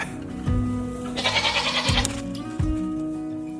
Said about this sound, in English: And that's actually why I'm here with my goats right now